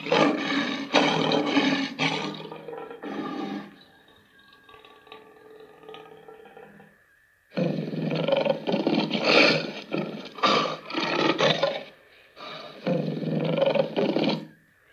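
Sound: lion roaring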